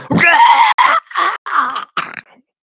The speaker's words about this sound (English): saunters up with these other goblins from behind you, you hear a blood curdling scream.